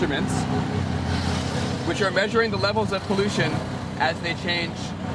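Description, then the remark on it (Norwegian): Busy traffic rumbles steadily, heard from an open motorized three-wheeled auto-rickshaw in New Delhi, India, among other rickshaws, cars and buses of all kinds. A constant low engine drone and street noise continue while people talk over it throughout, as air pollution exposure levels in traffic are measured. “Forurensningen fra de andre rickshawane som konkurrerer om plassen med biler og busser av alle slag”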